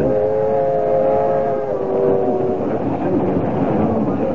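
A train rumbles steadily along the rails, heard from its dining car, loud, with a dense low roar and faint tonal whines drifting through the first half, no voices over it.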